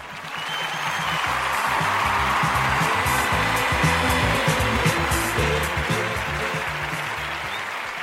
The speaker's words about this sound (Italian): Applauso.